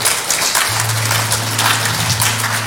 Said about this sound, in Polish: Dajcie oklaski Jezusowi za, za to, że